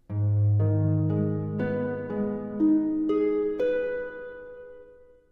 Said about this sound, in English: the only other thing I do is the harp arpeggio on measure 89. Instead of being an exact repetition, it goes up an octave higher so it almost it's almost like it's building to a final note. If I just play the harp part, it sounds like this.